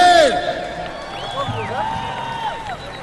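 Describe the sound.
A crowd of about 200,000 people at the Venezuela Live concert on the Tienditas bridge cheers and applauds a singer. Many shouting voices and high whistles rise and fall over a dense, steady roar that starts loudest and holds throughout.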